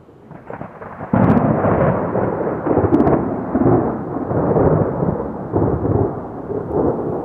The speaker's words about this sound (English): You ever been in a, a thunder shower and it's so oppressive and pounding on you and then it stops and is passed on further away and you look up and there are all these black clouds?